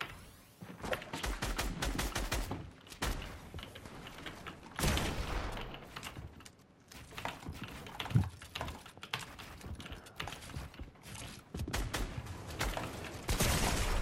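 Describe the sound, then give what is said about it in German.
Rapid bursts of video game gunfire crackle in quick succession, mixed with sharp clicking like keys being hammered, steady throughout with no one talking. “Ja, er hat halt Bro, er ist der beste Predictor und trifft jeden Schuss.”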